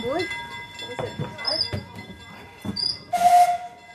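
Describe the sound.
At the Norwegian Railway Museum in Hamar, Norway, a steam train gives a loud burst of hissing steam near the end, with short whistle tones earlier, while people talk on a busy platform before boarding.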